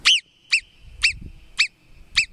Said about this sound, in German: Im schönen Bayern, da leben die Murmeltiere. Die klingen mal so,